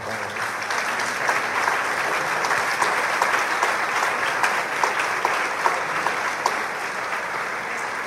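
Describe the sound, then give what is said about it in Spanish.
Loud, sustained applause from a church crowd for a visiting priest, a dense crackle of many hands clapping steadily for the full eight seconds without pause or speech. “Le damos un aplauso fuerte.”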